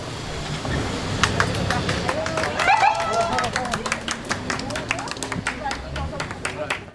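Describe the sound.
Scattered, irregular clapping from a small group of family and friends rises over a steady murmur of excited voices and crowd babble, with sharp individual claps standing out throughout, amid tears as they see a young woman again after she reappeared alive.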